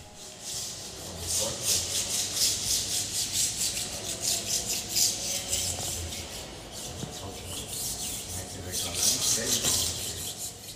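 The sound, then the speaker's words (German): Steady, rhythmic brush scrubbing by women cleaning in the basilica, a Greek section of a church, rasping strokes repeating continuously, with a few brief pauses and soft knocks in the background. “Dieses Geräusch stammt ebenfalls aus einer griechischen Abteilung der Kirche, nämlich aus der Basilika, wo ebenfalls Frauen am, am, Putzen waren.”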